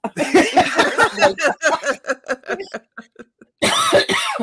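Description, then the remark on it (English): A loud fit of coughing from a person with a sinus cold: rapid rasping bursts that gradually thin out and fade, a brief pause, then another harsh burst of coughs. “the, the reason you're coughing?”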